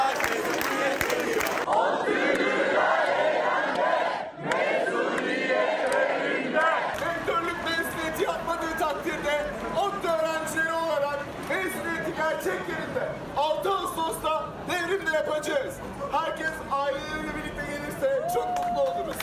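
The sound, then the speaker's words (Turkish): A large protest crowd of students, academics and alumni of Middle East Technical University (ODTÜ) in Turkey chants the slogan "mezuniyetin yeri devrimdir" in unison in the rectorate garden, voices rising and falling in a steady rhythmic pattern, loud, with shouting and cheering mixed throughout. “Devrim Stadyumu'nun mezuniyet törenine yasaklanmasına karşı mezuniyetin yeri devrimdir sloganıyla 6 Ağustos için çağrı yapan ODTÜ'lüler rektörlük bahçesini Devrim Stadyumu'na çevirdi”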